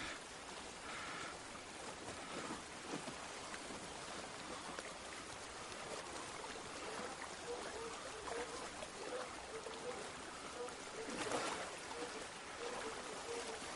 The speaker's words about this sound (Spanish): Mira hacia atrás y se introduce en el agua.